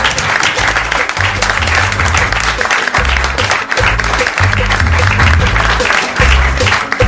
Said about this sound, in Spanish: Bueno, les agradecemos mucho que se hayan tomado el tiempo de sentarse acá con nosotros para charlar un poco y les pido por favor un enorme aplauso para estos muchachos.